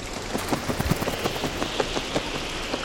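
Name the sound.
rain falling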